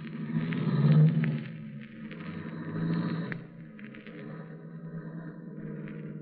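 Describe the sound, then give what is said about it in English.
A car engine rumbles and revs as the vehicle pulls away, its low drone swelling at first and then settling into a steady, moderately loud hum. “Yeah, it's a nice car.”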